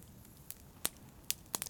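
Soft crackling of a campfire inside a turf hut, muffled by its sloping turf roof, with a handful of sharp, irregular pops and snaps over a quiet, low background hum, no voices present.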